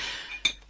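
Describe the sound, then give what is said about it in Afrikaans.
A single bright clink of glasses of milk against each other rings out sharply, with a short shimmering ring that fades quickly, over a soft background hiss with no one talking. “Ah, 'n glas melk, 'n glas roomryke melk in die landlikheid van sy eerste pastorie.”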